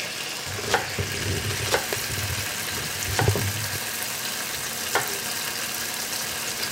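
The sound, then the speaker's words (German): Food sizzles steadily in a frying pan, a dense crackling hiss broken by a few sharp pops and spatters, with no one speaking. “Ach guck mal, jetzt haben wir übrigens das erste Mal so ein richtiges Brutzelgeräusch. Ich drehe euch mal hin.”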